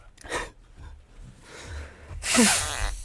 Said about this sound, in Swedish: du kan inte stå där och snörvla och hålla på. Vi ska ja. prata i radio för fan. Nej. Kom, kom hit, kom hit så får jag snyta dig.